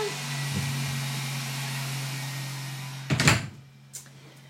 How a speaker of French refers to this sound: Je vais fermer la porte.